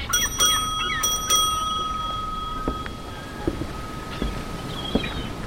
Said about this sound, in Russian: позвони в колокольчик. Должен выйти капитан.